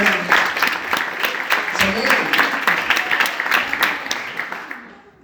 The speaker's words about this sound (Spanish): Un aplauso